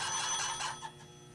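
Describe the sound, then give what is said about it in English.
A telephone bell rings with a bright, rattling metallic clang, fairly loud, sounding steadily before fading slightly near the end. No voices are heard. “Just head for the closest ringing.”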